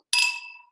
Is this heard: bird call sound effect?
no